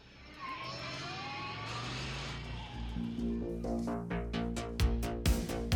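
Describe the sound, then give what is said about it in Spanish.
A DeLorean car engine starts, rumbles and revs up, its pitch climbing as it accelerates, then gives way to steady tones and rhythmic thumps; loud, with no talking. “Así que arranquemos los motores de nuestro DeLorean, aceleremos y al llegar a las 88 millas por hora, volvamos a la nostalgia de los 80.”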